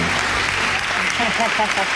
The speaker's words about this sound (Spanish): Mira cómo aplauden.